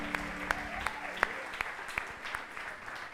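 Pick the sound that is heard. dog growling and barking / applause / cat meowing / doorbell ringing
applause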